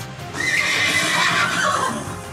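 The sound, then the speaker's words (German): A horse neighs loudly, a long quavering whinny that rises then falls over about two seconds, with faint hoof clops underneath and no voices. “So sicherten sie sich ein trockenes Bett, eine warme Mahlzeit und vielleicht sogar ein frisches Pferd.”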